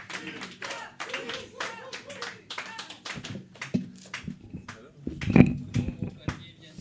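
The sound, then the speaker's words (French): A live audience at the start of an evening show breaks into steady applause, many hands clapping in a dense patter with a few voices mixed in, swelling briefly louder near the end before thinning out. “Applaudissements.”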